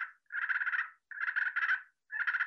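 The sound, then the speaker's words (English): A hand-operated turkey call imitates a turkey with bursts of raspy, rapid clucking and purring, three fairly loud phrases separated by short pauses, with no talking. “you can play with it at different places until you find the, the sweet spot for the calls that just you can do lots of things with this one just like with the box call”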